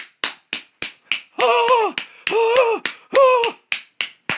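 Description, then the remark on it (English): A voice imitates the rhythmic skin slapping of a couple having sex: a steady run of sharp smacks about three per second, broken up by three longer drawn-out vocal sounds, like sustained voiced groans. “The slapping noise was like his balls, like just slapping against her and shit.”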